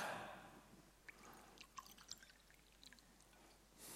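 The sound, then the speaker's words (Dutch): Water trickles and splashes into a glass, a soft pouring hiss followed by scattered small drips and clinks, quiet, with no one speaking. “Ik pak even een glaasje water.”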